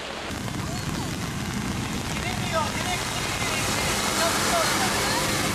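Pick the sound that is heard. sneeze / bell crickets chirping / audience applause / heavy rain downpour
heavy rain downpour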